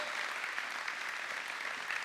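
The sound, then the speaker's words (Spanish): A church audience applauds steadily for God, a dense wash of many hands clapping at an even level throughout, with no voices standing out above it. “Entonces dale un aplauso sincero al Rey de Reyes y Señor de Señores.”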